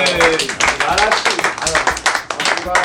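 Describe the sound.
A round of applause: steady, dense clapping from a group for about three seconds, with voices talking and calling out over it.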